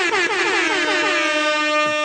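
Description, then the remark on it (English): A loud, sustained air horn sound effect with a brassy, buzzing tone, holding steady for about two seconds with a slight warble at the start, sounding alone. “That is the greatest thing ever. You got an air horn.”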